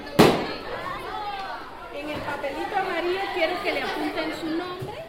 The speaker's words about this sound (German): lässt mit einem Seufzer der Freude einen gelben Luftballon platzen